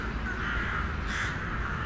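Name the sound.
raven cawing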